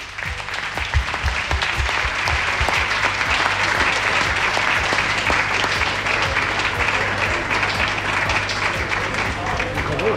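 Sustained audience applause, a dense, steady wash of many hands clapping at full loudness for about ten seconds, with a low hum running underneath.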